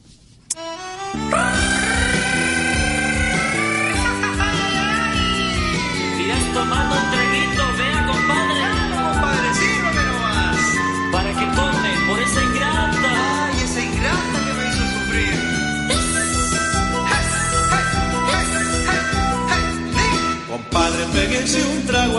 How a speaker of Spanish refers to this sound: dele paso a la siguiente canción.